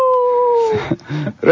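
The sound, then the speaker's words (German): A wolf from the Valais (Wallis) region of Switzerland lets out one long, slightly hoarse howl that slides gradually downward in pitch, clear, before it breaks off and people start talking. “das ist ein bisschen heißer, der Wolf.”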